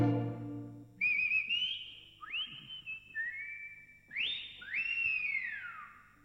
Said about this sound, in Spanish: Cuando no ha habido moquetes, hubo heridos o algún sonso que el camión ya lo embarró otras veces solo hay gritos y chiflitos.